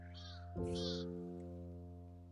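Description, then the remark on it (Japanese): Two harsh crow caws ring out in quick succession over a steady low electrical hum that continues after the calls fade. No one speaks. “同時になんか今、カラスの声聞きながら、”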